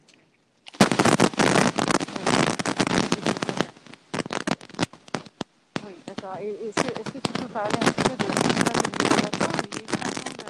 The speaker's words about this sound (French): Attends, j'entends beaucoup de bruit. Ah, là, est-ce que tu m'entends mieux Il y avait un peu d'artifice, ouais. Là, c'est bon. Ah oui, dans le parc.